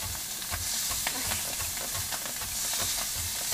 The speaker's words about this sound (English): Okay, I'm chopping parsley, trying not to chop off my finger.